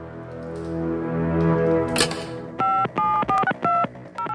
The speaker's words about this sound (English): Pass me the red telephone right now. Get Marvel headquarters on the line.